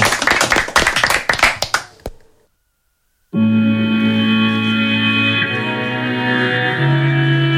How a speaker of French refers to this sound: Eh ben on va tous l'applaudir s'il vous plaît messieurs, dames.